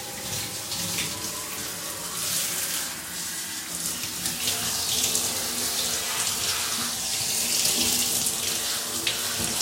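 household object, running tap water

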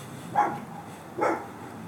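animal, dog barking next door

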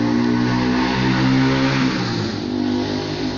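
vehicle, motorcycle engine revving

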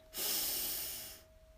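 human body sound, deep inhaling breath

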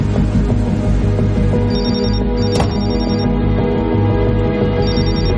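household object, telephone ringing

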